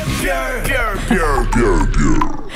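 A person grunts loudly and close up in a string of voiced, strained bursts, the pitch sliding up and down, with no words spoken.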